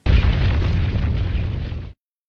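A massive stone door in a mountain grinds shut in one continuous, deep rumbling roar, heavy and loud from start to finish for about two seconds, then cutting off abruptly into silence.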